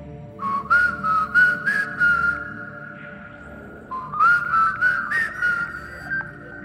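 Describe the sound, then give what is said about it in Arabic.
A person whistles a short melodic tune, two phrases with a brief pause between them, clear, with no talking. “والموسيقى حلوه والصفاره حلوه وخلاص انا دخلت في مود نظريات عجيبه خلاص اصفر لكم انا طول الحلقه دي”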